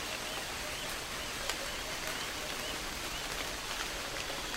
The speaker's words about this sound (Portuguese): A pequena chuva molha o solo e traz um perfume de vida indescritível.